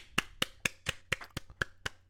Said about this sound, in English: round of applause, round of applause, round of applause.